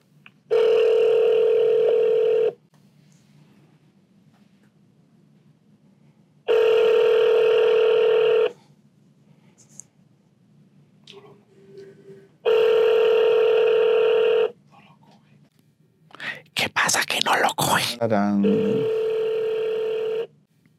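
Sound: outgoing phone call ringing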